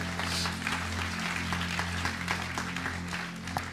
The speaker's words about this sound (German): Lass uns Gott noch einen riesen Applaus geben